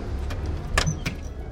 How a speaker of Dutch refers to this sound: Ja, daar ga ik naar binnen. Deur dicht natuurlijk.